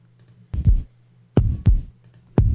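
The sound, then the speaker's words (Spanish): A deep, heartbeat-like hospital sound throbs in paired thumps, lub-dub pairs spaced about a second apart, loud over a low steady hum, with no voices. “Sí, hay sonidos hospitalarios, un segundo.”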